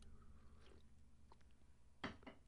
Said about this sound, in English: If you could excuse me, I need to get a quick sip of coffee here on this very cold morning.